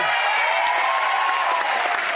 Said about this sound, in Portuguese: Pode preparar mais aplausos, porque no domingo vai estrear a nova temporada do Choque.